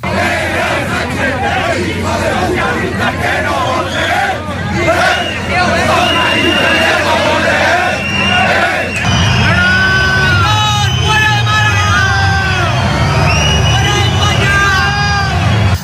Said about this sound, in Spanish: Se vivieron momentos de tensión a las puertas de la subdelegación entre aquellos manifestantes más radicales con aquellos más pacíficos. Más de 500 personas gritaban consignas contra Pedro Sánchez.